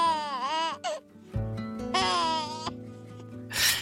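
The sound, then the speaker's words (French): A baby boy, the speaker's son, babbles and laughs in high, squealy bursts, two longer happy vocal outbursts with short pauses between, over a soft steady background. “C'est mon fils, c'est …, euh, qui, rigole et qui est tout aussi positif que moi.”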